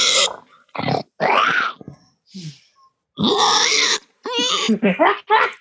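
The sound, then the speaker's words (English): A voice imitates the growl of a Gamorrean, a pig-like alien creature: several loud, harsh grunting and snorting bursts, separated by brief pauses, with no actual speech. “The major cl- uh, clarifies that it was a scheduled vacation, but the Gamorrean growls at him.”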